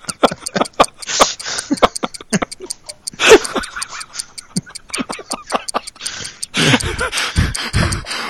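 A ticking clock sound effect used as the 'Doom Clock': rapid, evenly spaced sharp ticks running steadily throughout, with breathy, hissing swells and murmurs rising and falling underneath.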